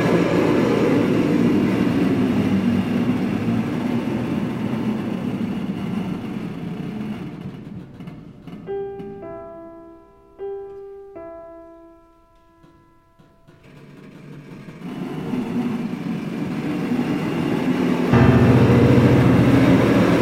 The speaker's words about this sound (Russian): я предложил бы послушать Франческо Балила Протелло фрагмент из оперы «Авиатор Дро», где звучит и симфонический оркестр, и небольшие включения вот этих самых шумовых интонаторов Луиджи Руссела, Интона Румори.